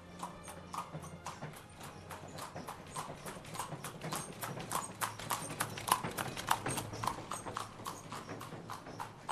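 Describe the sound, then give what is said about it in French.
Horse hooves clip-clop steadily on a hard surface in Yunnan, where pu'er tea was carried by horse or mule, a quick regular rhythm of sharp knocks, continuous throughout, with a faint ambient hum beneath. “Ici au Yunnan, c'est le thé pu'er qui était transporté à dos de cheval ou de mule, les feuilles compressées, lentement vieillies.”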